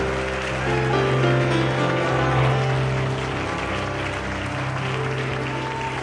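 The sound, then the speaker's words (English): A standing church audience claps their hands for Jesus in sustained, dense applause, a steady loud wash of overlapping claps with a faint sustained musical tone underneath. “Give Jesus a hand clap for sending us the very best”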